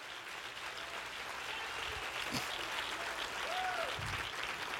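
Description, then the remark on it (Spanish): Steady applause from an audience fills the whole stretch, a dense, even wash of clapping with a brief whistle-like tone rising above it near the end. “Dale fuerte el aplauso a tu papá a tu papá.”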